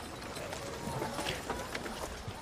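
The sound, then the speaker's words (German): Hooves clip-clop in a steady trotting rhythm as several riders set off together on horseback, over a continuous rushing, noisy background, with some faint voices mixed in. “Ja, und so reitet ihr los.”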